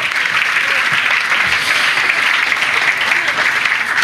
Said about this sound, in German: Wen haben wir jetzt vergessen? Die älteren Leute ab 29. Okay, wollen wir den älteren Leuten ab 29 einen Applaus geben?